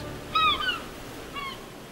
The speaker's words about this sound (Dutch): Ik hou van hun schrille, onaangepaste, vormloze geroep. Alsof ze de existentialisten van de vogels zijn. Alles is nieuw en rauw als zij in de wereld verschijnen.